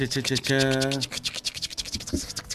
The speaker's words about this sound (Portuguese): Esse é o barulhinho do. Porta-chaves e máscara.